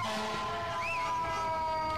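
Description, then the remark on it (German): A fire engine siren wails in a brief rising-and-falling sweep as the fire engine comes up to a red light and cannot get through, over a steady hum of traffic and engine noise, with several sustained tones running underneath. “Ja, die Feuerwehr, Feuerwehr kommt.”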